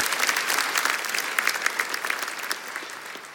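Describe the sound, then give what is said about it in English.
An audience claps steadily, a dense burst of many hands that holds at a fairly even level for a few seconds before easing slightly toward the end. “let's hear it for.”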